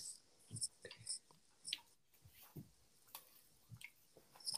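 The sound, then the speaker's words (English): Quiet sipping of water: soft wet slurps, little mouth clicks and a swallow or two, scattered irregularly over a few seconds with no talking. “No, I was taking a sip of my water.”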